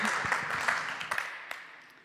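A short burst of audience applause, many hands clapping in a dense patter that gradually thins and fades over about two seconds.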